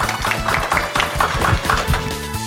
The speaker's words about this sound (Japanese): どうもありがとうございました。もう一度大きな拍手お願いいたします。